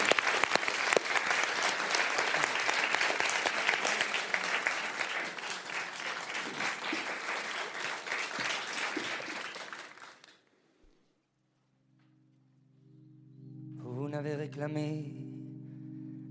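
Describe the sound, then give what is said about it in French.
A large audience applauds loudly and steadily for about ten seconds as a singer is introduced to perform a song set to a poem by Aragon, the clapping dense and sustained before fading out, followed by quiet and then a low sustained musical tone with a voice beginning. “Sous nos euh, applaudissements,”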